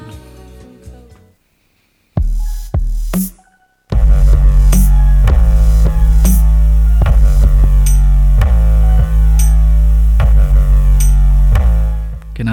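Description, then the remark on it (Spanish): Harsh, noisy experimental music from a new album that sounds like static interference. A short sparse stretch and a near-silent gap give way to a loud, saturated wall of sound with heavy low rumble and regular pulsing hits. “Esto que se, escucha, eh, se escucha justo como se tiene que, que escuchar, no son interferencias, es el nuevo álbum”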